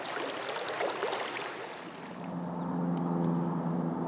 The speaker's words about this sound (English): Students in his Environment and Sound course produced more than a dozen ambient soundscapes of the creek. Like this.